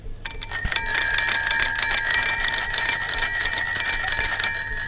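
A bell rings loudly and continuously, a bright metallic ringing with sustained shimmering overtones that starts abruptly and holds for several seconds with no voices.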